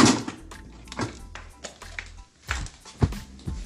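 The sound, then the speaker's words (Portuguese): Several heavy thuds of doors slamming shut, spaced irregularly about a second apart, each a sharp bang with a low rumble, loud with no talking, as a girl runs off excitedly, slamming the doors behind her. “E batia as portas, e batia e batia mais portas. Era aqueles barulhos.”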